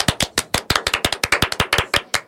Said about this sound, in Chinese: 其实呢，要跟大家分享一件事情，就是今天这一集是我们第二季的最后一集了，拍手。